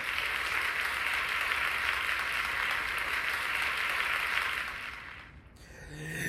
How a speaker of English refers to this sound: Um, man, let's get a round of applause going on. Let's get, let's get a round of applause. Let's get, let's get the round of applause going.